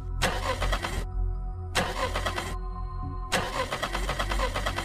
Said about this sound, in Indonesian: Mobil belum di starter sama saya tuh. Setelah di starter, tekek tekek tekek tekek